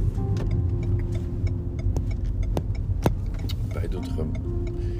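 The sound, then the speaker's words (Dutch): Steady low rumble of a car driving along the ring road past Vorden on the way to Velhorst at 9:06, in sun with heavy dew, with a constant engine and road drone, occasional sharp clicks and rattles inside the cabin, and faint bits of speech. “ik rijd nu langs Vorden. Langs over de rondweg.”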